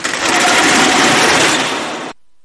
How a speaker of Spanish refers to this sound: Cuando suena la persiana es que nos vamos ya a casa